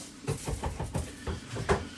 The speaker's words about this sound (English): I always, by the way, that tapping noise you hear is me tapping the pepper on the side of the sink because I always just get rid of the seeds that way.